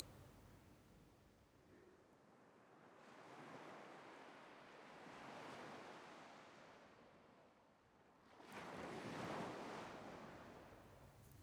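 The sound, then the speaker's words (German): Ocean waves roll onto a beach in slow, broad surges, each swell building and washing back in a steady hiss, with the last wave breaking strongest; no voices, just continuous surf. “kannst das Meer rauschen hören. Nicht weit entfernt ist ein Strand.”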